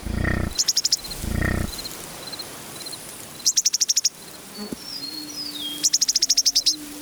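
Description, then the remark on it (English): A prairie soundscape on the windswept grasslands of the American and Canadian plains, recorded by Lang Elliott and Bernie Krause: bursts of rapid, high buzzing trills repeat every few seconds, mixed with thin whistled bird notes and a steady insect-like hiss, with two low rumbling bursts early on. “They make their playground where the skies are not cloudy on the vast windswept grasses of the American and Canadian plains.”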